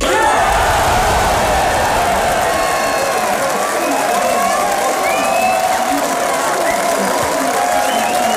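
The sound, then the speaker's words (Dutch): A large crowd at an election-night party of the NSC party at Metropool in Enschede roars with cheers, whoops and shouting over sustained applause on learning the party is one of the big winners, a dense, loud and continuous wall of celebration throughout. “Ja, zo eh, zag Metropool in Enschede gisteravond uit toen NSC daar voor het eerst hoorde een van de grote winnaars te zijn.”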